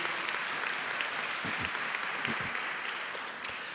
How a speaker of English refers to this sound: Can you give him a round of applause, please?